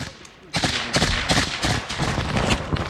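After a brief quiet moment, a loud, dense barrage of incoming artillery explosions and outgoing gunfire erupts in pre-dawn light as a Ukrainian assault infantry unit of the 47th Mechanized Brigade tries to retake trenches in Avdiivka captured by Russian forces, with booms and sharp cracks overlapping in rapid, irregular succession.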